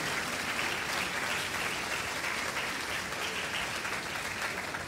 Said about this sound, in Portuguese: Pode aplaudir, fica bonito no vídeo. Pode aplaudir.